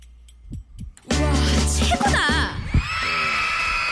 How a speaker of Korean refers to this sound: 이게 카운트다운이 하다 말고 로켓트가 피식거린다. 발사가 안 됐나 봐. 꽝 하고 올라가야 되는데.